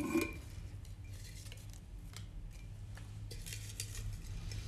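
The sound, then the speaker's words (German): A folded paper slip, drawn to pick a topic, being rustled and crinkled, giving a quiet, steady run of dry, papery crackles with no talking, over a low background hum. “Okay, ich rasche erstmal damit.”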